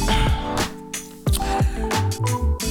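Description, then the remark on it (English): Close-up sounds of someone drinking water, with several wet gulps and squishy, crinkling bursts in an irregular rhythm, fairly loud and with no talking. “I drank this water.”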